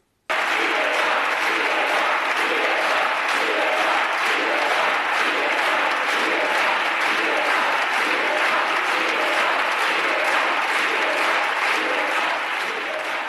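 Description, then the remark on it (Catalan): Sustained, dense applause fills a parliament chamber, many hands clapping at a steady loudness for about thirteen seconds, with a faint murmur of voices buried underneath. The applause comes from the government benches, Unidas Podemos and the left-wing parties at the moment of a vote in the Spanish Congress. “I en el moment de la votació, mentre al cantó del govern i d'Unides Podemos i de les esquerres hi havia aplaudiments, a l'altra banda, a la banda de la dreta nacionalista espanyola, cridaven libertat.”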